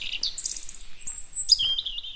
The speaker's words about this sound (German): Man hört nur die Vögel